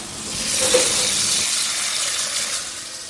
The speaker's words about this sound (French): Donc voilà, là je les ai épluchés. Je vais euh, remplir une casserole d'eau bouillante.